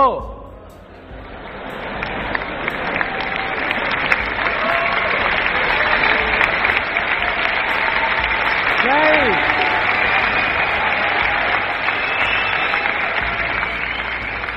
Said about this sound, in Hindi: कुछ लोग जो तालियां नहीं बजा रहे ना वो बहुत सीरियस हो गए